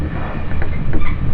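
Steady, loud rumble of the Yosan Line limited express Ishizuchi No. 25 in motion, travelling from Tadotsu to Iyo-Mishima, a broad continuous roar with low-frequency drone and faint rhythmic rattles, no voices heard.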